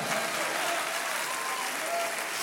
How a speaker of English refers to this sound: Anybody got a testimony? Clap your hands and shout. Come on.